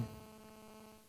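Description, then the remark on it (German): A low, steady electronic buzz hums continuously for about a second, fairly quiet, from the speaker's own mobile phone vibrating, with no voices over it. “ah, das ist mein Telefon gell?”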